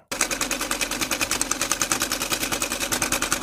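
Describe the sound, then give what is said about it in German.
A sewing machine runs steadily, its needle clattering in a fast, even rhythm throughout, with no voices over it. “Kenn ich. Eine Nähmaschine.”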